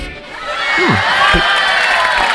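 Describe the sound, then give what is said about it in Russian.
An audience breaks into loud, sustained applause and cheering, a dense wash of clapping with voices rising over it, holding steady for the whole stretch. “Аплодисменты, да.”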